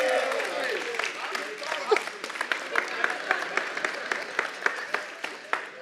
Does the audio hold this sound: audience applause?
yes